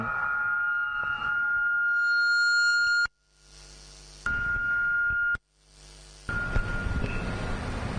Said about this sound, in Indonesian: Biasanya kalau di Jawa Timur sirine gini buka puasa.